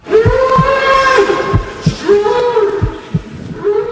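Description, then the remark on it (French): A bull being slaughtered in a spectacle cries out in long, strained, tonal bellows that rise and fall almost without pause, with dull low thumps repeating underneath and a faint crowd murmur. “Derrière ces cris, un taureau qui se fait massacrer pour le plaisir de quelques personnes.”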